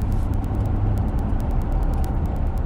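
Steady, loud road noise from a moving car fills the whole stretch, a continuous low rumble with a faint recurring tick on top and no voices.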